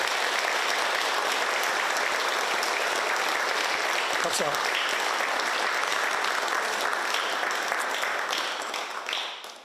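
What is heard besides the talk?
audience applause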